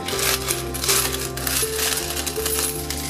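coins clinking and dropping

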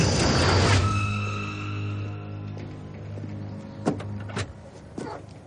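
car door opening

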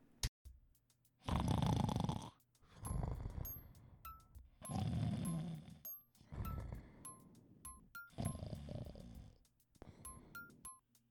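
person snoring

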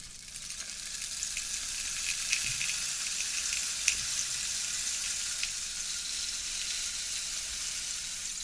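rain stick being turned

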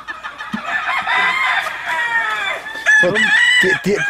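rooster crowing

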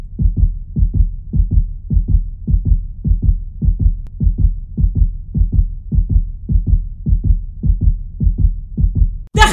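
loud pounding heartbeat

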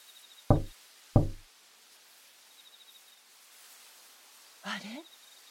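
knocking on a door

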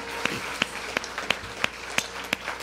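audience applauding

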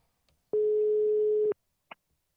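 telephone ringing tone

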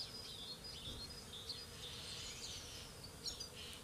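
bees buzzing

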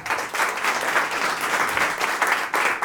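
audience applauding

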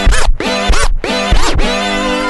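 DJ turntable scratch

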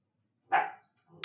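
dog barking

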